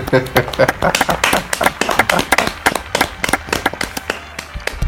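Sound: applause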